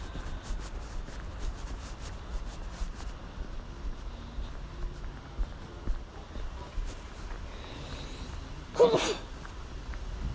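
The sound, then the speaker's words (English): A single sharp, fairly loud sneeze from a person out walking bursts out near the end, after a stretch of quiet shuffling and low background noise with no talking. The person has been sneezing a lot after going swimming the day before. “In other news, I'm sneezing a lot.”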